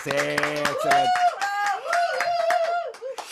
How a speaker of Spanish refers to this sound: Y sí estamos en vivo y sí tenemos gente, así que aplausen ahora que estamos en vivo.